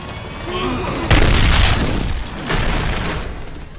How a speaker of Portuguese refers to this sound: Tiro de alerta. É. Tiro de alerta. Tiro de aviso.